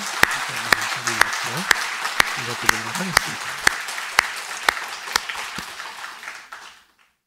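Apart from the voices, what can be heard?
audience applauding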